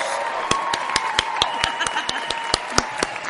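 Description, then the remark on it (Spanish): A steady run of about a dozen sharp, evenly spaced claps from an applause sound effect app, played to welcome a guest, moderately loud over a faint continuous hum. “Ahí están, otra vez, aplausos.”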